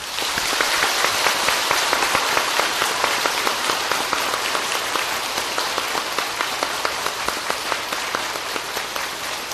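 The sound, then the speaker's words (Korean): A crowd applauds for the children at the close of a Buddhist children's precepts ceremony, many hands clapping in a dense, even patter that holds at a fairly loud level throughout with no voices. “어린이들을 위해서 모두 박수를 쳐주시기를 바랍니다.”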